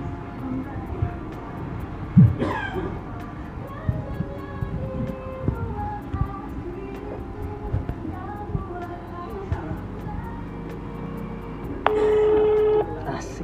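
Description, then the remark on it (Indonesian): A phone call being placed to a friend who is a music journalist: faint dialing sounds over steady background noise, then a single steady ringback tone near the end, clear. “kita lihat ya kita coba kita telepon orangnya”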